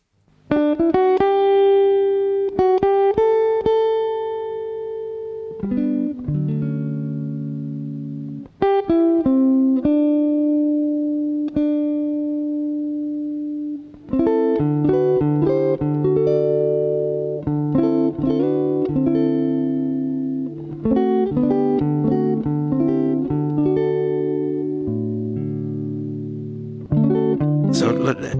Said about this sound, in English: just a little flavour there of She Moved Through the Fair from …